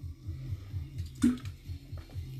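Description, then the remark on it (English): A brief liquid splash lands midway through, a single wet burst over a low, steady background rumble with faint dripping sounds around it. “That splashed back up at me.”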